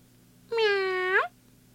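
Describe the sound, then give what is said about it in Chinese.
A single drawn-out meow from a small grey cat, about three-quarters of a second long, clear and fairly loud, holding a steady mid pitch before a brief upward lilt at the end, over a faint low hum. “小灰猫这时候突然从餐桌上“噗”一跃而过，哎呀，花瓶里的水被弄洒了。”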